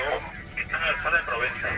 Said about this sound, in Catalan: alguns grups de manifestants eh, sentíem ara a través de la ràdio interna que van cap a Diagonal, s'estan movent pel centre de Barcelona